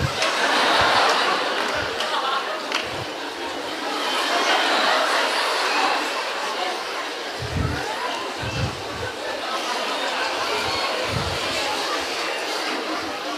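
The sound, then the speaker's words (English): A crowd makes a dense, continuous chorus of chattering, hooting voices imitating monkeys, with scattered laughs and bursts of noise rising and falling throughout. “and the babies would jump away, and they would jump away with them, and they'd make the sounds of the monkeys.”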